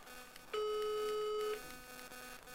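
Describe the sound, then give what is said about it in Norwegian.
A single steady electronic phone ringing tone of an outgoing call sounds for about one second, clear, over a faint background hum with no talking. “Skal vi høre om det ringer? Ja. Det ringer jo, det hører vi.”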